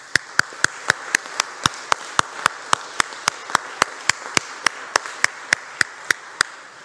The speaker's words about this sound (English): I want you, first of all, to give a round of applause to our adult choir and to later our children's ministries, music ministries here at First Church.